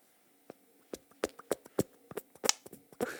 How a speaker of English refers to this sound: What does it sound like? I don't know. Can you fart with your hands?